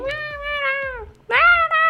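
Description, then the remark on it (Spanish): A single voice imitates people shouting messages of encouragement from their apartments in Wuhan during the coronavirus quarantine, with two long, wavering, high-pitched cries separated by a short pause, fairly loud with no other sounds around it. “está como súper fuerte el coronavirus, y como que todos están gritando desde sus casas como mensajes de aliento, así como de Wuhan es fuerte ah, y así, pero nada más se escuchan como puros grititos.”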